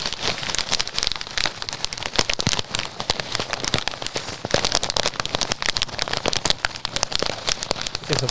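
Steady, dense crackling and popping like burning campfire embers, with sharp snaps scattered irregularly over a constant hiss, fairly loud with no voices.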